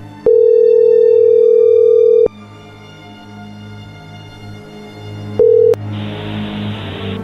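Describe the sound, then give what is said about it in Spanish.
A WhatsApp call's ringing tone, placed from a second phone: a steady mid-pitched beep lasting about two seconds, a pause of low background hum, then a second, briefer beep followed by a soft hiss. “Le puedo marcar por el WhatsApp porque yo tengo otro teléfono.”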